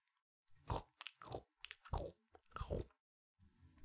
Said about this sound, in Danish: Haren er i fuld gang med at spise gulerodsnæsen